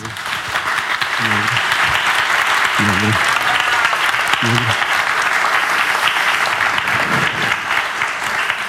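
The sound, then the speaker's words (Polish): A crowd applauds steadily and loudly throughout, a dense wash of clapping, for Polish actor Jacek Poniedziałek, invited by a literary publisher to read excerpts, while a man's voice speaks a few brief greetings over it. “Zróbcie dla niego hałas.”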